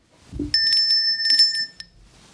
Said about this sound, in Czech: ale jenom chci říct, že mají tady úplně super vymyšlený systém donášení objednávek. Ano. Prostě to je, to podostupuje přes všechny patra. Máte tady zvoneček, moment, já vám zazvoním.